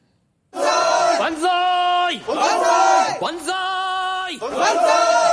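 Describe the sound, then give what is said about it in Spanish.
In a film scene, a large crowd cheers and chants in unison, hailing their new emperor of Japan, loud rhythmic waves of voices rising and falling in repeated bursts. “Están saludando a su nuevo emperador.”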